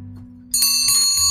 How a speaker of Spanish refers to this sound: El sonido de la campana, el sonido de la, campana. Nuestros auditores ya, saben que es, es momento de las preguntas, random.